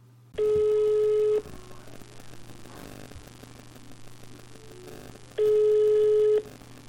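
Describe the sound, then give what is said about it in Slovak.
A telephone line rings on the other end of a call to a number found on the internet: two steady, buzzing ring tones about a second long, spaced roughly five seconds apart over faint line hiss, with no one talking. “Nuž som zapátral na internete a našiel číslo aj tam.”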